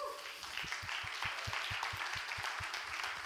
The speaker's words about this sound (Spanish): Den un aplauso a Dios.